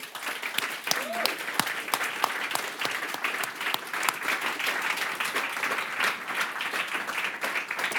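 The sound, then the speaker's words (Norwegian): An audience applauds two guests steadily for the whole stretch, a dense wash of many hands clapping at an even loudness, with a brief whistle-like tone near the start. “La oss gi en applaus for disse to.”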